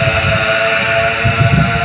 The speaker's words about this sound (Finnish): Mitä alkoi vähän tuulee, sori